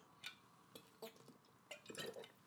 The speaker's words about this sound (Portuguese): Pausa para a água.